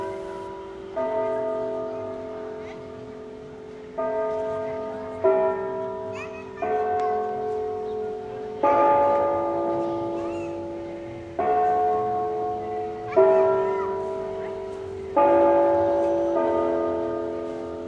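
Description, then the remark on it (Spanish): Church bells ring out in a steady sequence of about eight loud strikes, each tone ringing and slowly fading before the next peal, with no voices over them. “Es que me gusta escuchar las campanitas.”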